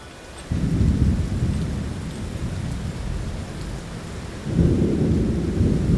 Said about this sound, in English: Once we get to Long Lawn, it's raining, monsoon rains.